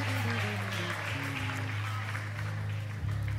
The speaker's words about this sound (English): Somebody, anybody, give God praise here. Oh, you're just clapping your hands. Celebrate those that have come to know Jesus Christ.